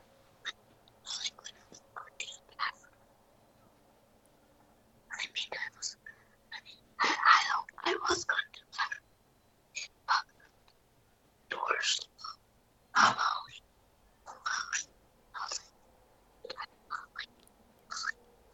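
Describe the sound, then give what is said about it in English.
A boy whispers in short, breathy bursts of hushed speech, telling a story he wants retold, pausing briefly between phrases, continuing steadily for the whole stretch with no voiced talk. “his whispering me a story that he wants me to tell.”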